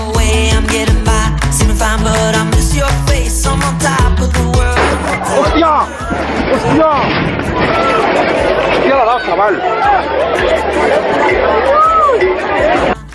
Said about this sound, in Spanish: Y esto que escuchan es la reacción de las personas que grababan el vídeo que se ha hecho viral en Twitter.